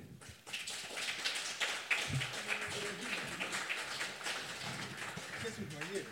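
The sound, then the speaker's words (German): A crowd applauds steadily to welcome a guest, with dense, overlapping clapping that fills the whole stretch at a fairly even loudness. A few faint voices can be heard murmuring underneath. “Und ähm, ohne großes Trara ist einfach mal einen großen Applaus”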